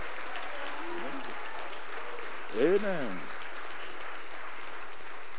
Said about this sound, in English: Clap your hands.